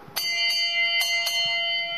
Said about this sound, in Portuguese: Como em todas as unidades militares, o espaço das refeições tem um sino que apela à união em momentos especiais fazendo jus ao lema servir para mais longe alcançar.